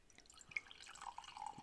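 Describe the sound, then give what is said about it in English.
Wine trickling and splashing into a White Cliff Vineyard glass, a soft gurgling pour that lasts a second or two, with faint tonal ringing as the glass fills. The wine is a rich gold colour. No one speaks. “All right, let's have a little little pour here.”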